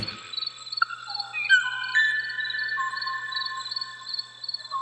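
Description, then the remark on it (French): Clear, fluting whistles of an 'O'o bird's song, long held notes and rising slides, set against a constant high drone of insects, with no voices. “Mais quel est ce son, les ho-ho eh ben, C'est justement le ho-ho.”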